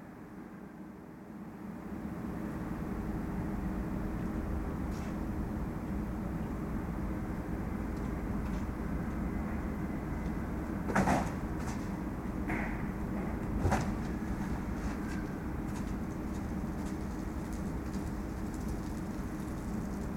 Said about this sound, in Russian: Звук номер 22. Вентиляторы и уборка за гипермаркетом Капитолий. 5 часов 33 минуты.